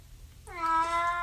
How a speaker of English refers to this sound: What is your problem, you weird cat?